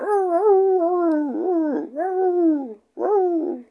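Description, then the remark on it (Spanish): A person imitates coyote howling, giving three drawn-out, wavering howls that rise and dip in pitch, the last one shorter after a brief pause. “y de repente pues, empezamos a escuchar como que aullidos.”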